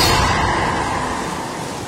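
A loud, full rush of breaking surf at Dumas Beach, a broad hissing wash that gradually eases as the wave recedes, with no voices over it.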